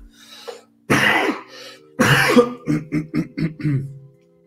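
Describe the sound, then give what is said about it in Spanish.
A person who is ill coughs harshly twice, then clears their throat in a quick series of short, rhythmic rasps, fairly loud with no talking. “Entonces van a estar escuchado que toso y tomo agua y demás.”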